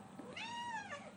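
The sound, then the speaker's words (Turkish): A single drawn-out cat meow, rising and then falling in pitch, heard on its own at a modest volume against a faint background hiss. “Evet işte o kedi.”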